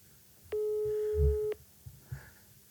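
A single steady ringback tone sounds for about a second on a phone line during an outgoing call to wish someone a happy birthday, followed by quiet line hiss and a few faint low bumps.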